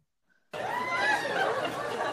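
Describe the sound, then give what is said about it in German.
A canned crowd laugh track, played from a soundboard, kicks in abruptly after a brief silence, a dense wash of many people laughing and chattering at steady, fairly loud volume until it cuts off. “Ich kann einfach Lachenton anmachen hier. Ich habe ne Sound, ich hab hier ein Soundboard.”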